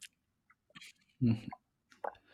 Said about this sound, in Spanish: Perdón, sorbito de agua porque se me secó la garganta